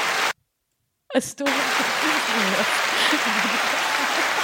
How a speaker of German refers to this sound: Wenn wir Applaus haben wollen, dann machen wir so.